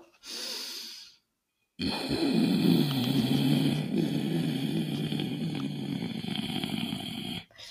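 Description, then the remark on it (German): A short nasal inhale, a brief pause, then a long forceful snorting exhale through the nose with a rough, bubbling, rattling texture of mucus, done as a voice exercise with the jaw slightly open to make the larynx vibrate; loud, with no talking. “ihr atmet durch die Nase ein und schnaubt durch die Nase raus mit der Intention, den Kehlkopf zum Schwingen zu bringen”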